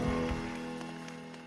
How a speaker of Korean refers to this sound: 힘과 능력 되신 하나님 앞에 영광의 박수 크게 올려드립시다. 할렐루야.